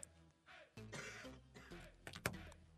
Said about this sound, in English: I had a cough, sorry.